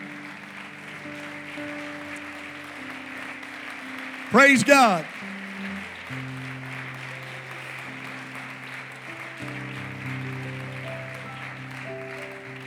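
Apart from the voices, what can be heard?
audience hand clapping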